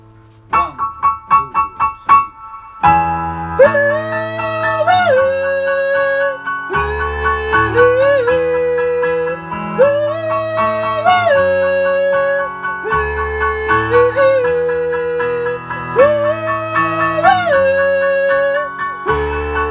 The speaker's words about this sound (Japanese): はい、じゃあファルセットの強化、はい、いきましょう